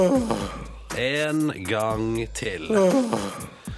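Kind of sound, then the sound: human body sound, a person yawning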